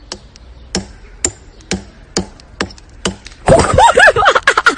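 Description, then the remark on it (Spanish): Seven sharp, evenly spaced hammer blows strike a stone sculpture more than 200 years old about twice a second, breaking off its nose, then the steady knocking gives way to a dense, louder burst of clattering noise with warbling tones. “decidió arruinar una escultura de más de 200 años con un martillo rompiéndole la nariz”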